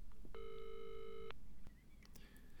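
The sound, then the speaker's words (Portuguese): A telephone ringing tone sounds once as a call is placed to the city animal pound, a steady electronic buzz lasting about a second, clear over a low background rumble, followed by faint clicks and quiet line noise. “Ela pegou o telefone e ligou para o canil da prefeitura.”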